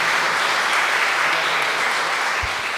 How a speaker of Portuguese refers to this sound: Então aplauda o Senhor para essa nova fase da nossa igreja, em nome de Jesus.